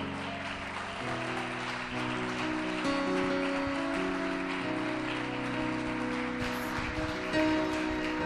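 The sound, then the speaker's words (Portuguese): A church audience applauds in praise to the Lord in dense, steady clapping that continues for about eight seconds, with sustained organ-like musical tones held underneath. “As palmas louvos ao Senhor.”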